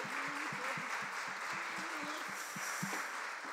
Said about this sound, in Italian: E prima di, prima di passare alla parola volevo anche fare un applauso alle persone nuove che sono qui oggi. C'è qualche persona nuova tra di noi.